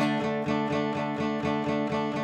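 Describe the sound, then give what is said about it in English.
Steady, evenly paced acoustic guitar strumming moving between D and A chords, with about eight to nine uniform, unaccented strokes at a constant volume, clear, with no voices. “But normally, you would just play like this.”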